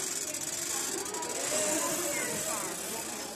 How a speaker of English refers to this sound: Wait there, darling, and I'll get this chair, okay? Put your brakes on because it's not safe on the tiles. Good girl. You hold on there. I'll get this chair. It's a very noisy chair now, so.